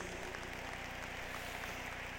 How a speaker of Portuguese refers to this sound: Vamos dar uma grande salva de palmas ao Senhor Jesus Cristo.